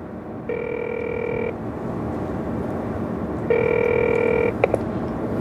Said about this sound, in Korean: 상전딸님의 휴대 전화로 전화 거는 중.